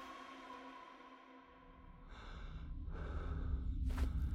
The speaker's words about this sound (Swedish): Jag flämtar efter andan och släpper taget om stycket av hår och kött i min knutna näve.